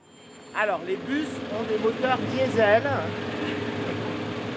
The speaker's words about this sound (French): Vous l'entendez là Il s'agit d'un bus de la marque Eliès avec le moteur à l'arrière. Très maniable. Regardez comment il fait les virages serrés.